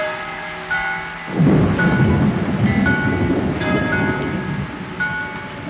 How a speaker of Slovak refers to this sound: Začalo to jemným mrholením, a za pár minút sa pod náporom silného, nezastaviteľného dažďa otrasala celá strecha.